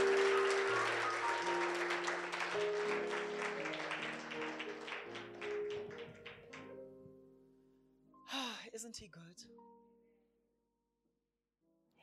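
An audience gives Jesus a "clap offering" after a prayer, clapping steadily and loudly for several seconds over sustained low keyboard chords. The applause thins and fades out, followed by a brief vocal exclamation before near silence.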